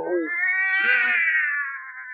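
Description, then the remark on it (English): A woman's voice, a wife in the Lights Out radio drama "Cat Wife" with Boris Karloff, lets out a long, drawn-out cat-like yowl, rising and wavering before trailing off, loud, with no other talking. “Cat Wife”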